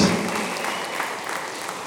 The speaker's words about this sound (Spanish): Denle ese aplauso a Rey de Reyes con todo su corazón.